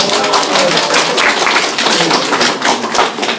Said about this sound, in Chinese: 掌声，掌声！